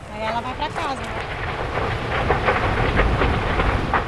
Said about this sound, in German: Und das Feuer kommt. Es ist kein Unterholz, was da brennt. Es ist ein Stück dichter, noch stehender Regenwald. Die Flammen donnern, brausen und schreien, schleudern Bäume meterhoch in die Luft.